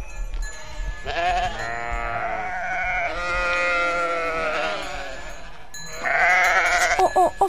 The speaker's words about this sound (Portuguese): Estamos em São Romão, Conselho de Ceia. As ovelhas preparam-se para ir para o pasto. É uma alegria. Estão todas a sair deste momento do, dos corrais